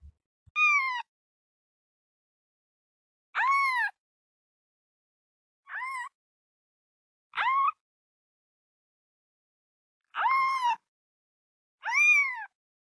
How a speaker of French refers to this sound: c'est le chaton.